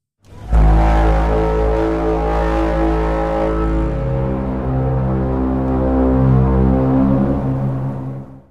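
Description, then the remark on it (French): A loud, deep alien tripod call, the iconic sound from Spielberg's film War of the Worlds, recreated from an ocean liner's horn: one sustained, brassy blare about eight seconds long, rich in low droning tones that shift slightly in pitch before fading. “Ce fameux son émis par les tripodes extraterrestres pour communiquer entre eux.”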